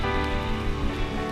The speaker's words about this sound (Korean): 더 주님만 영광 받으시도록 주님만 찬양 받으시도록 주님께 영광과 감사의 박수 올려드립시다